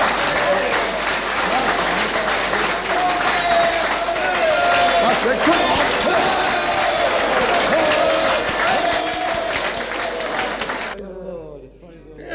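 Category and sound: crowd, audience clapping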